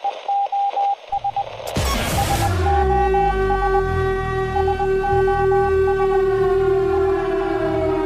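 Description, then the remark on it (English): Rapid Morse code beeps give way to a loud air raid siren, played on The Alex Jones Show, that swells up and then holds a steady, sustained wail to the end, with no voices present. “Yes, ladies and gentlemen, I'm playing the sounds of Morse code and air raid sirens because I want to get your attention.”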